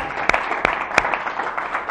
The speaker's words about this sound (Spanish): Gracias. Aplauso a vosotros por organizar.